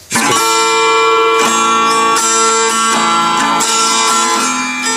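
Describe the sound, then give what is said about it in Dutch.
Acoustic guitar strummed in a steady rhythm into a microphone, bright ringing chords changing roughly every second, loud with no voices. “Dat gitaar, dat klinkt prima, hè?”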